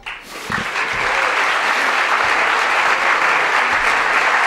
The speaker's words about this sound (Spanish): Yo creo que el doctor Moya se merece un aplauso.